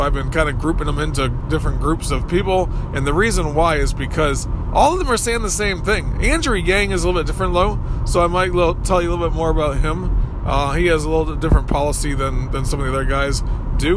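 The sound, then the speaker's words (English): A steady low rumble of a car's interior while the man drives his car runs continuously under him talking, never rising or fading through the whole stretch. “Every so often, I have to do my show while I'm driving in my car.”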